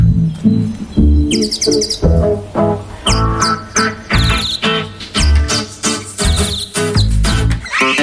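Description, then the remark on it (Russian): Bright, chirping nightingale-style whistling comes in quick trilling bursts over a steady rhythmic musical backing, loud for the whole stretch. “Вы посмотрите, как я мускулист, и слушайте все а мой художественный свист.”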